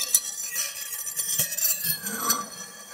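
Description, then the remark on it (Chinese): Claws scraping against stone: gritty scraping and scratching with sharp clicks, and a brief shrill, rising squeak near the end. No one speaks. “猴子经过时，江江则是用爪子刮石头，发出刺耳的“叽叽”声”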